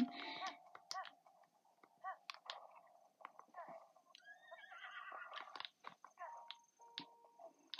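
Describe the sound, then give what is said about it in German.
A video game horse whinnies near the start, followed by a run of quick, clattering hoof clops and scattered clicks, moderately loud, with brief faint voices mixed in, as the player gets back on their horse. “Jetzt muss ich wieder auf mein Pferd”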